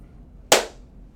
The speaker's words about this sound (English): That's a, that's a double clap. That means episode That's two. a double clap because someone was talking over my first clap.